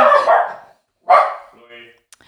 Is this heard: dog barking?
yes